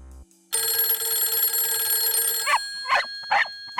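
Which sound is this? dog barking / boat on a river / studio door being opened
dog barking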